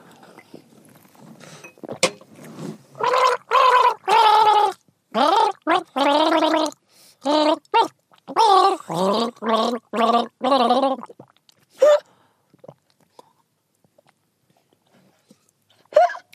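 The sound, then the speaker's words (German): Someone gargles loudly as part of a game in a series of bubbly, voiced bursts with a wavering pitch, pausing briefly between them, then falls quiet except for a few faint clicks. “Unser Spiel beginnt. Gurgel, Wurgel.”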